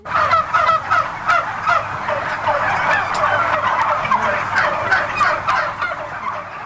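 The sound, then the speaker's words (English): Turkeys gobbling loudly and continuously at the annual Thanksgiving turkey pardon at the White House in Washington, their rapid warbling calls overlapping with no voices. “President Joe Biden kicked off Thanksgiving week spending time with service members and sparing two turkeys from becoming someone's dinner”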